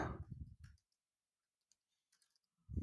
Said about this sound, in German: Ähm, was tippt er in die Sendungsnotiznummer?